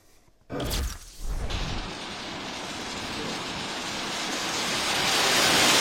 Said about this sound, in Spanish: Ahí lo escuchan, lo sienten. Conductores se enfrentan a carreteras mojadas. Y es que la lluvia llegó al sur de California esta mañana, trayendo consigo acumulados de un tercio de pulgada en algunas zonas y también tormentas eléctricas.